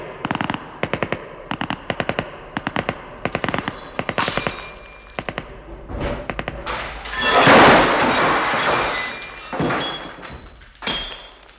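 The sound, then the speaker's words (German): Rapid bursts of automatic gunfire crackle in quick succession in a shootout between police and men surrounded in a villa, followed by a loud rumbling blast and scattered heavier shots, a dense exchange of fire with no talking. “Es kam, wie Sie soeben gehört haben, zu einem heftigen Schusswechsel.”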